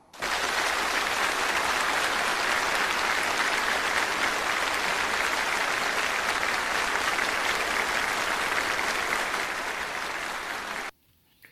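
Sustained applause from a large crowd following a speech stating that Hong Kong and Macau affairs are China's internal affairs, a dense steady roar of clapping lasting about eleven seconds before cutting off abruptly, with no voices standing out.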